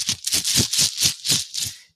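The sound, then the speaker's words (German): Small Bakelite tiles, taken from the espresso machine of a small coffee-making board game, rattle and clack together in a quick, steady rhythm of about seven bright bursts, fairly loud, fading out at the end with no voices. “Wir haben da eine Espressomaschine vor uns stehen und aus dieser Espressomaschine holen wir so kleine Bakelitsteine. Ich habe die extra mal hier liegen”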